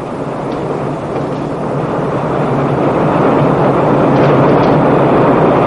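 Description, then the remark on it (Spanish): An elevated train rolls past in a loud, continuous rumbling roar that swells slightly over several seconds, dense and steady throughout, drowning out a knock at a door, with no voices. “Hooker llega ante la puerta indicada y llama, aunque el ruido del tren elevado ahoga la llamada.”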